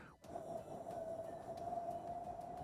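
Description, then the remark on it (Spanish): A voice imitates the sound of an alien spaceship: a soft, steady whoosh like a computer fan gently displacing air, holding a faint even hum for a few seconds at low volume. “La nave se escucha, las, estas naves se escuchan como un ventilador de computadora que van desplazando aire muy suavecito, como un...”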